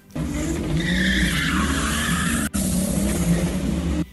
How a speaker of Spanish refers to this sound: Residentes de la avenida Jacobo Magluta se quejan por los espectáculos de dragueo de autos que se realizan en plena vía.